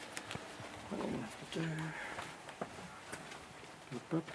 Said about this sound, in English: So I need my iPhone for that. Sorry. Uh, so this is the bit where it gets really annoying because I put my metronome on. Uh, on my phone, which is here.